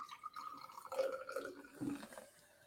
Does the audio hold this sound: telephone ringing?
no